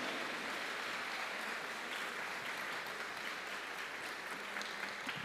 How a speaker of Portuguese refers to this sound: Vamos aplaudir o Senhor, amém? Aleluia.